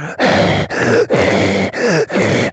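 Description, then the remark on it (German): A voice imitates heavy, raspy breathing right up against a microphone: five loud, groaning breaths in a steady rhythm, heavy, with brief pauses between them. “ins Mikrofon atmet.”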